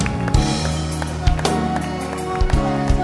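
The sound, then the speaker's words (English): An audience claps hands in a steady, dense wash of sound with a few sharper accents, blended with music playing underneath at a fairly loud level. “Keep clapping. Don't stop clapping.”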